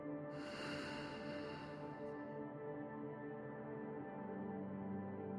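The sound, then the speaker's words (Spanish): A long, airy breath exhaled through the nose during a deep-breathing exercise lasts about two seconds, soft, over a steady, quiet musical drone that continues after it fades. “Inhala. Y exhala por la nariz.”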